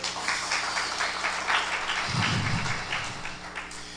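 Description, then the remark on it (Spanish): An audience claps steadily for about four seconds, giving a round of applause to a brother who has just spoken, a dense, even wash of many hands with no voices over it, and a brief low thump partway through. “Un aplauso al hermano, por favor.”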